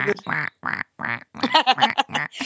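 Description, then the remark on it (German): A person imitates a duck, giving a rapid series of about eight nasal, raspy quacks in an uneven rhythm, loud. “ja, quack, kannst du nicht machen, weil du hast keinen Schnabel.”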